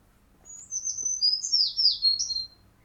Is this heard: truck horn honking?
no